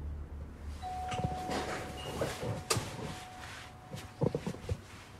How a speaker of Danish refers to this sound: Nu skal vi tilbage til adressen, hvor Josef Carter efter sine bor i Åben Rå. Jeg ringer på.